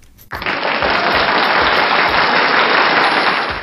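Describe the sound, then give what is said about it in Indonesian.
A sudden burst of hand clapping, done to try out a new microphone and mixer, that settles into dense, steady applause for about three seconds, an even rushing patter of many claps with no voices over it. “baru episode 5 tapi sekarang kita udah punya mikrofon waduh udah ada mixer ya kan kita bisa tepuk tangan apa di sini bisa nggak sih bisa”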